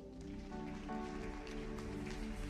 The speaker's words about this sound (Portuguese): Aplauda ao Senhor.